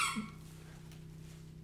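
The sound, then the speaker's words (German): A single short, high-pitched squeak from a dog at the very start, then only a low steady background hum. Nobody speaks. “die erste Folge mit Hund”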